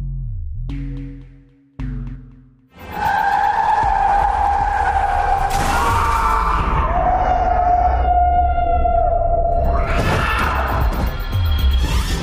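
A car engine revs briefly, then tires screech in a long, loud, wavering skid, broken by heavy crunching impacts of a crash near the middle and again toward the end, as the car collides and begins to roll over.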